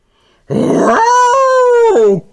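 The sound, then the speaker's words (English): A rough growl rises into one steady, drawn-out howl from Lobo the wolf that holds a single pitch for about a second before cutting off. It is loud, with no talking. “Well, she wasn't outside for more than five minutes when Lobo the wolf approached her.”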